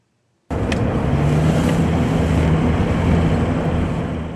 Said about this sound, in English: When we drove alongside the river, we didn't let the speedometer dip below 70 miles an hour. On one bank is the city, on the other, Russian tanks, artillery, and snipers. A fast moving target is hard to hit.